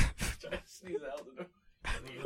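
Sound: sneeze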